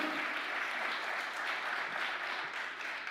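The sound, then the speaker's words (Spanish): A large crowd applauds loudly and steadily for the Lord, the dense wash of many clapping hands filling the space without pause for a few seconds, with no clear talking over it. “Dele un aplauso fuerte al Señor.”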